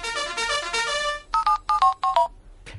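A brief electronic telephone jingle of the Línea Directa company phone line: a bright, busy synthesized melody, then a few clipped two-note beeps in quick succession, ending with a short soft noise. No one speaks.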